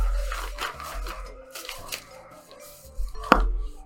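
The speaker's dogs suddenly go wild, several sharp barks bursting out in uneven clusters, with a few quieter yaps between them and a low steady hum underneath.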